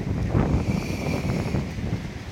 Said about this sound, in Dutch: Ik probeer even mijn hand voor de speaker te houden. Ik hoop dat het nu niet heel erg waait.